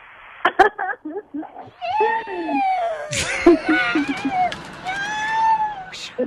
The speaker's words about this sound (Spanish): Porque ahí le va otra vez, le voy a poner la bocina a la lavadora para que escuche el gato.